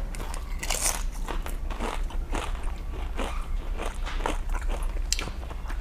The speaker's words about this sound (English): I got a good chip here. Some bubbles in it. Wow. But it's breaking on me. Wow. So that's a big scoop, right?